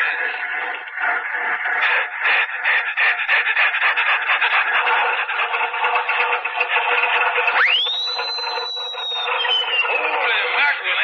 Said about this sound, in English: to listen to that bear cat motor. Yeah, it sounds like the bear is chasing that cat all around